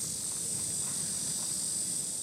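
A steady, high-pitched insect drone of cicadas in hot weather fills the whole stretch without pause, continuous and even in loudness, with no voices present.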